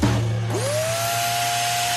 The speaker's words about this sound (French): C'est votre nouvel aspirateur robot qui fait le ménage pendant que vous réservez vos vacances dans le sud.